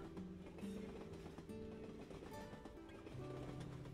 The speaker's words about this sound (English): With your mind wandering, the sound of the train tracks becomes a soothing lullaby, mixed in with the vibrations that you can feel.